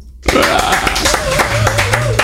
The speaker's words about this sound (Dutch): Jullie waren tot nu toe het beste team ooit. Dus applaus voor jezelf.